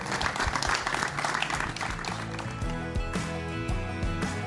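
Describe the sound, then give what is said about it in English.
An audience breaks into steady, loud applause after a panel discussion on carbon footprints in the brewing industry, dense clapping that fills the whole moment, with some low musical tones rising underneath as it continues. “Please, a big round of applause for tackling a very challenging topic.”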